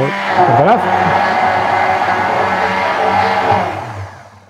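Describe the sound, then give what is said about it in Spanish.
A blender motor, used while cooking, runs loudly with a steady, buzzing whine, its pitch wobbling briefly at the start before holding level for a few seconds and then winding down. “La batidora, estoy cocinando.”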